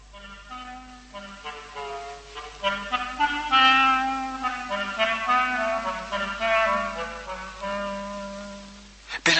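A clarinet, playing the part of the cat in the story, plays a playful, sneaky tune with short phrases and sustained notes over soft orchestral accompaniment, moderately loud, with no talking.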